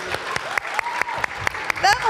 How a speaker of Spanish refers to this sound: Adelante, adelante, pasen por favor. Estuvieron en Guinea-Bissau, ¿se recuerdan? que un, aplauso de bienvenida